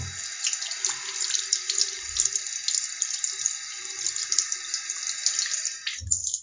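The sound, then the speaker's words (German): A tap runs steadily for several seconds in a bathroom while hands are washed, rubbing and splashing beneath the stream, with faint knocks against the basin, fairly loud, then the water stops abruptly. “Ja, ein bisschen ASMR von Händewaschen bekommt.”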